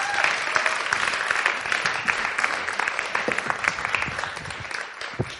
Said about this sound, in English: Can we give these guys a round of applause? Well done.